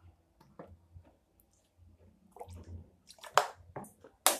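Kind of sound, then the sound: food or drink, drinking water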